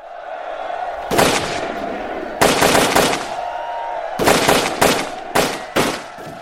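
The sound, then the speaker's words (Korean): Repeated bursts of matchlock musket gunfire crack out in clustered volleys over a steady low rumble. Some shots are sharp, and others overlap in quick ragged succession. The sound is from a battle in Korea in which Sin Hal and Yu Geuk-ryang were shot dead. “신할이 조총에 맞아 죽었다.”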